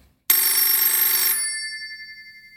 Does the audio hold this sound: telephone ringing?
yes